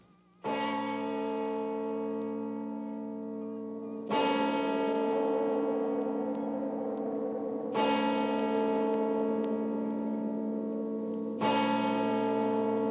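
A deep church bell tolls slowly as it strikes twelve, four heavy strikes spaced about four seconds apart, each leaving a long, resonant hum that rings into the next. No voices.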